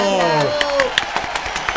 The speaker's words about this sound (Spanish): Espectacular, muy bien, muy bien, aplaudimos.